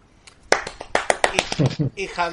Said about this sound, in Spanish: Pero el aplauso es para... no para la serie, sino para Meryl Streep